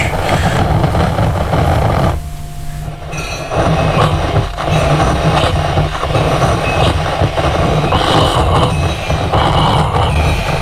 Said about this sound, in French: Là, l'aiguille euh, est sur la feutrine. je la tiens pour pas qu'elle s'écrase de trop, pour, qu'elle, pour pas que ça soit du continu.